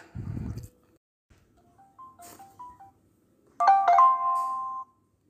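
An outgoing phone call: a short thump, then a few soft electronic beeps, followed by a louder, steady ringing tone that holds for about a second before cutting off. No one speaks.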